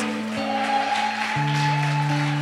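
An audience in Jabalia claps steadily in applause for God, the diffuse applause blending with sustained organ-like keyboard chords that shift pitch partway through, with no one speaking.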